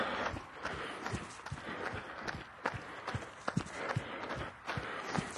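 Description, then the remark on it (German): Steady footsteps of a person crunch along a gravel path in a field, a brisk walking rhythm of gritty, scraping steps, with no voices. “Ja, ich weiß nicht genau, ob es das Mikro auch aufnimmt, also meine Schritte. Ich bin jetzt hier im Moment auf so einem Schotterweg im Feld, wie gesagt.”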